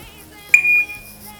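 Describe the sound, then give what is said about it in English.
A single short electronic timer beep, high-pitched and steady, sounds once for about a third of a second as the timer is paused during a workout warm-up, against a quiet background with a faint low hum. “That was just the, the me um, pausing the timer.”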